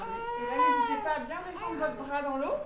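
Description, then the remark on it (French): A newborn baby cries in one continuous, wavering wail lasting a few seconds, its high pitch rising and falling with strained, bleating breaks. “Des bébés, le docteur Philippe de Ruel en a vu naître des centaines.”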